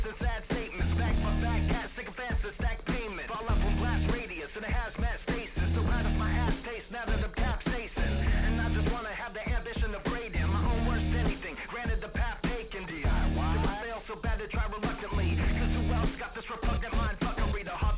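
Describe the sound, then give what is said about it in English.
A loud hip-hop track with heavy bass and a steady beat, carried by a rapped vocal that sounds gritty and distorted, playing continuously throughout. “I will say this dude sounds kind of dope with the vocal distortion too.”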